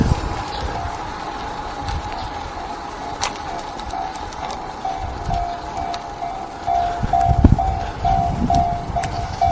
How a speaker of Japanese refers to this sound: 電車が来てる